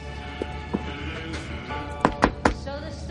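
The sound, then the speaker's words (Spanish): Three quick, firm knuckle knocks on the door of motel room 203, in an even rhythm, preceded by a couple of softer thuds, over a low steady background hum. “Se fija en la habitación 203, se acerca a la puerta y llama con los nudillos.”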